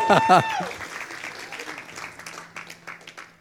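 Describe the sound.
A crowd applauds in a steady, dense patter of many hands, opening with a brief voice or cheer, then gradually thinning and softening over a few seconds.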